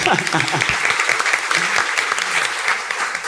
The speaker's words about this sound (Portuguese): Vamos bater palmas de novo, né?